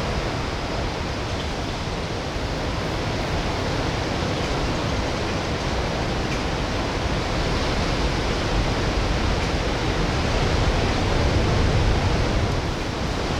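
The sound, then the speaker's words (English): Ocean waves wash in a steady, continuous rush of surf with no clear breaks between them, swelling slightly louder near the end. No voices, just the broad hiss of water throughout. “let's just listen to the let's listen to the waves for 15 seconds because screw it.”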